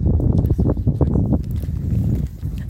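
Several people's footsteps tread in a steady, uneven patter on hard ground outdoors as they walk through grassy gardens near Bath University's Hive project building, clearest in the first half, over a constant low rumble of wind.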